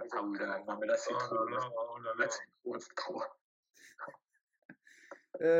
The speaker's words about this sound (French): oui, donc, donc ce petit chien. Euh, voilà, c'est mignon.